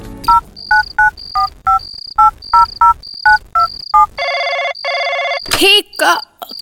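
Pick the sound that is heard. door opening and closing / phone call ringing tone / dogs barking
phone call ringing tone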